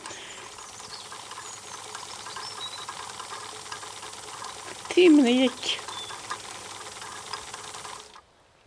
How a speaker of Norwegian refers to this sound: Jeg tok frem symaskinen og satte meg til å sy.